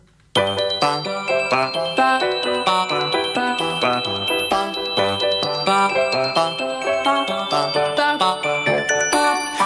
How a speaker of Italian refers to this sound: Quindi adesso con grande piacere ascoltiamo … dei …